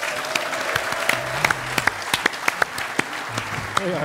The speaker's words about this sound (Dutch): Mag ik u applaus voor Chris Zegers?